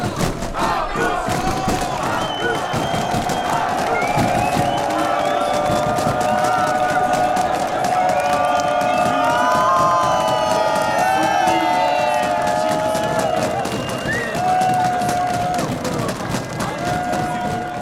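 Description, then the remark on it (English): A dense roadside crowd on day two of the Tour de France roars and cheers continuously for cyclist Magnus Cort Nielsen in the polka dot jersey, with shouts, whoops and chanting voices layered into a loud, sustained wall of sound that swells in the middle. “That is the crowd for Magnus Cort Nielsen, polka dot jersey, day two of the Tour de France.”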